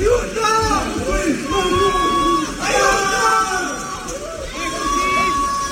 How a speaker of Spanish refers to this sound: Gritos pidiendo ayuda.